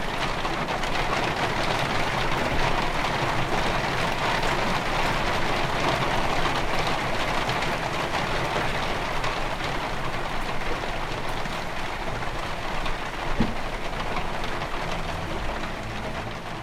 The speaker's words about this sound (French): Cette nuit, nous nous endormons chacun de notre côté, sans pouvoir nous toucher, dans le bruit des grosses gouttes de pluie qui frappent le pont du bateau.